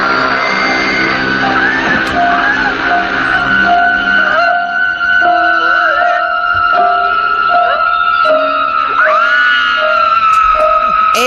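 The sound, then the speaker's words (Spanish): A woman in a horror film screams in terror, a loud, sustained, piercing cry that wavers and shifts in pitch over several seconds, continuous with no pauses. “que de repente cuando lo está, la está llamando el asesino persiguiéndola, la cámara le hace un primer plano y pega un grito que le vemos los empastes, ¿no?”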